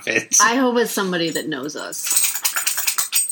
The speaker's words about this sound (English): That's a dog shaking itself off as it walked away. Why do dogs do that? I don't know. They shake themselves all the time when they're coming in, going out, as if they're in a fucking rain.